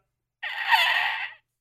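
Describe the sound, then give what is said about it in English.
A single raspy, strained vocal sound lasting about a second, someone imitating a dying gasp as they lose their breath, rising slightly then fading. Fairly loud, with no other sounds around it. “That's me, like losing my dying.”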